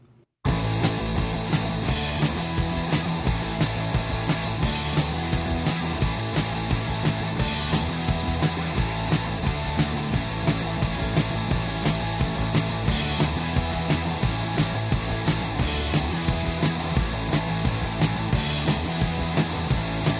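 A fast, loud punk rock song plays throughout, with driving distorted guitars, pounding steady drums and a dense, energetic full-band sound at a constant high level.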